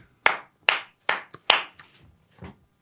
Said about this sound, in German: Da, dann ganz fetten Applaus für dich,